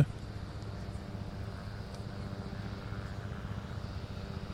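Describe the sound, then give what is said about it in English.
A large two-level tourist boat, seemingly pretty full and moving at a good speed, rumbles past on the water in a steady, low droning hum that holds at an even, moderate level throughout, with no voices over it. “So that was going by. That was like a two level boat, like a tourist boat.”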